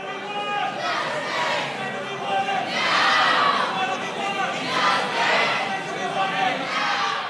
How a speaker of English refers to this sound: I was sitting there listening to people chanting and protesting in the audience.